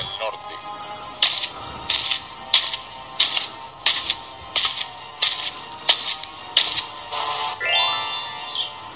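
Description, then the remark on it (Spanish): A coin sound effect: about ten bright, metallic clinks in a steady rapid rhythm, fairly loud, ending with a brief rising shimmer. “En el suelo te encuentras dos monedas.”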